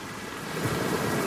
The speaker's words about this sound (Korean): 그리스 산토리니의 카마리 해변에 도착했습니다 아, 파도가 밀려옵니다. 왁산 폭발로 만들어진 검은색의 모래가 신비한 느낌을 주는 어떤 해변입니다. 모래가 검다 보니까 바닷물도 아주 까만색으로 보입니다.